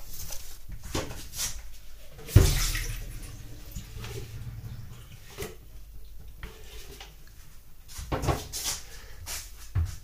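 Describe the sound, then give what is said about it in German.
After the cleaning machine is switched off, cleaning pads are dropped into a bucket and water is emptied out: a sharp plastic clunk early on, then a steady rushing, sloshing pour with scattered knocks and splashes, no talking. “Dann die Pads wieder in den Eimer und das Wasser weg.”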